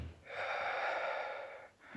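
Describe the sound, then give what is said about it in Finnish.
A single long, breathy inhalation drawn through the mouth by a patient during a medical examination, fairly loud, lasting over a second with a soft hiss before it tapers off; no talking. “Hengitä suun kautta.”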